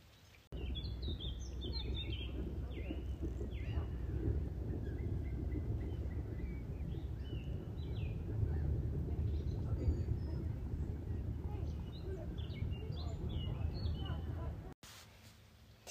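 Small birds chirp and sing in scattered bursts throughout beside open water, layered over a steady low rumble of ambient outdoor noise.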